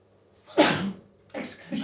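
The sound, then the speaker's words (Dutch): A sharp sneeze bursts out loudly and briefly, followed moments later by a quieter breathy exhale or sniff. “Gezondheid. Gezondheid, ja.”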